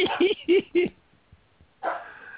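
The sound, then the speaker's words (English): A dog barks four times in a quick, choppy burst, then falls quiet before one more rougher bark or yelp. The barks are fairly loud, with no talking over them. “Feed that dog, will you please?”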